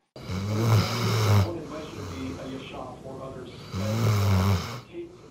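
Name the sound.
dog snoring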